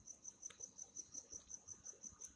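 crickets chirping at night

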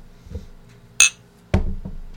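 glasses clinking

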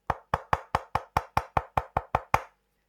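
knocking on wood

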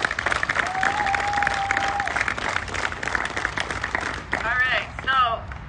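audience clapping

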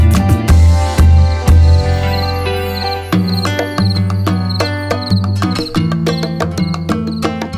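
cricket chirping

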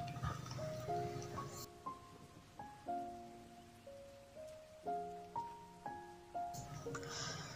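rain falling

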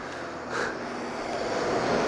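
truck passing by outside

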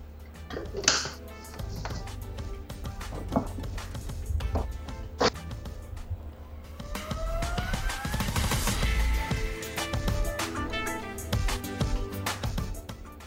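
blender running

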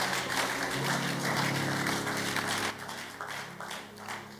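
audience clapping

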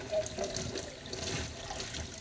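tap water running

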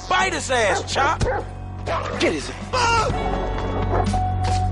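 dog barking

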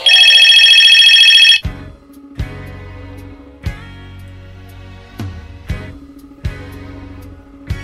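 telephone ringing

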